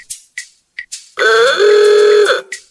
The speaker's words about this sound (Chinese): 可以吗？喇叭可以发出很响的声音吗？